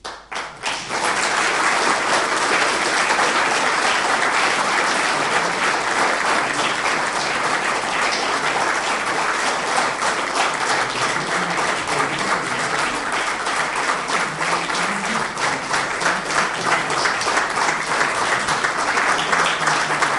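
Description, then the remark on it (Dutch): A large audience gives a standing ovation at the end, applauding steadily for about twenty seconds, a dense, loud wash of many hands clapping at once without pause, with no voices standing out. “Ik wou jullie ook nog dat applaus aan het einde laten horen.”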